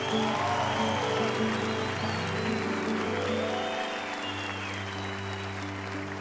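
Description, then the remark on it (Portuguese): An audience applauds the Holy Mother of God after a prayer, a dense wash of many hands clapping steadily for the full six seconds, with low sustained musical tones droning underneath. “Aplauda a nossa mãe.”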